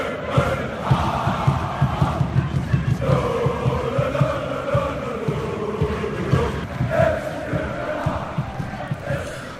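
A large crowd of FC Copenhagen (København) football fans sings a loud, sustained chant in unison from the stands, backed by steady rhythmic thumps like drumbeats or claps, echoing through a packed stadium for the whole stretch.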